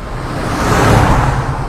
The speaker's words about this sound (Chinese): 妈妈降下了车窗，窗外茂密的大树、高耸的电线杆快速地向后移动，一辆集装箱卡车唰的一下飞驰的错过，带着呼呼的强风吹进了车内。